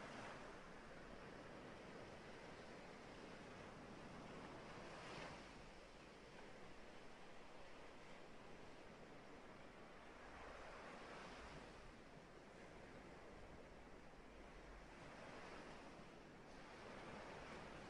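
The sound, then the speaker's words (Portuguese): Ocean surf rolls in steady, broad washes, swelling and receding every few seconds in a continuous hiss of breaking water, with no voices present. “Ouça as ondas que vêm e que vão.”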